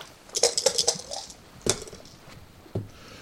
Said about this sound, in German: Sehr gut. Dann würfel ich.